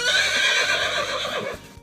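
A single loud horse whinny, a shrill, quavering neigh lasting under two seconds that fades slightly at the end, with no voices.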